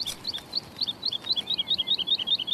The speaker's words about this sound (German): Diep, diep, diep, diep, didel, didel, didel, didel, didel, didel. Das ist die Heidelerche, die da hinten singt.